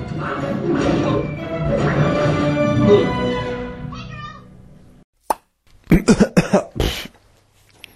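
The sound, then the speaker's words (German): A stretch of voiced sound fades out, then one sharp cough is followed by a loud burst of four or five rapid coughs, ending in a quieter final one. “Was ihr da eben gehört habt, also ich meine jetzt vor meinem Husten, war ein kurzer Ausschnitt aus dem Kinoprogramm, das wir uns heute Abend reingepfiffen haben.”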